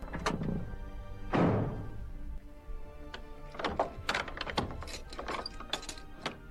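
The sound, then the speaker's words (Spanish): A house door thuds shut with a heavy impact, followed by several seconds of sharp wooden and metallic clunks and rattles as it is barred and latched. “Rosario se metió a su casa y atrancó la puerta.”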